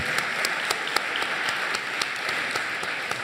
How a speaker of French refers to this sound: Merci à vous d'avoir pris le courage de venir sur ce débat. Applaudissements. Voilà, applaudissements, bien évidemment, c'est le client rêvé pour la radio, mais on l'aime beaucoup.